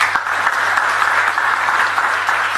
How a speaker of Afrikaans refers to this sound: Kom ons gee hulle lekker hande klap.